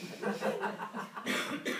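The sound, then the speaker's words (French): A run of short, breathy coughs from a person, a few quick bursts in a row, with a slightly laugh-like, voiced quality between them. “votre fonction ne vous sied point mal, et vous avez grâce à tousser.”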